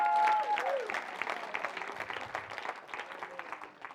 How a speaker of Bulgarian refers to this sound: О, може ли някой да ръкопляска на Бога, ако вярва?